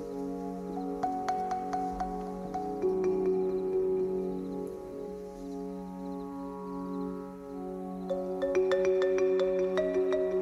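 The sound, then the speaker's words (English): Soft, mellow marimba notes plink out in a loose, gentle pattern over a warm, sustained synth pad that hums steadily underneath, with a brighter flurry of notes toward the end. No voices. “I hear a marimba. I hear a kind of pad synthesizer in the background.”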